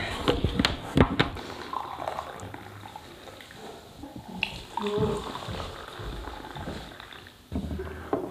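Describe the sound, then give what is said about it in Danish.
Coffee splashes and trickles into a cup in an office at Christiansborg, a steady, gurgling pour with a few sharp clinks at the start and soft drips near the end. “Det er, er du til kaffe? Ja, det er jeg faktisk.”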